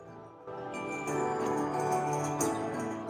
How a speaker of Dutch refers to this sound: Oh, die muziek, jongen. Dit is wat ik wil in mijn leven. De hele tijd zo'n speakertje.